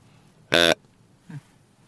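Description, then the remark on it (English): A grunt call, with its middle button pressed, imitates a young buck such as a spike or four-pointer, giving one short, loud, buzzy grunt, followed a moment later by a brief faint low sound, with no talking. “That's a young deer. If I press the middle button, it's a young buck, like a spike or maybe a four pointer.”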